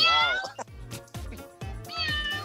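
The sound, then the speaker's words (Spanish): A person mimics a cat with drawn-out, wavering meows, fairly loud, several vocal bursts in quick succession with short gaps between them. “Ok, ¿cómo hace, el ¿cómo hace el perro y cómo hace el gato? Primero el gato.”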